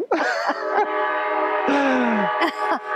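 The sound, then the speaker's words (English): Loud train horns blare in long, sustained blasts, several overlapping tones with brief dips between them, filling the whole stretch without any talking. “They're really honking those horns.”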